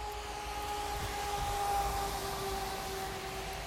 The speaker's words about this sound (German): Moment, ich muss noch mal in den Wald reingehen. Es ist zu laut hier an der Straße.